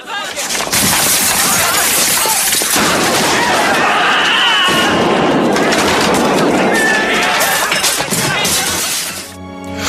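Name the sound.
glass shattering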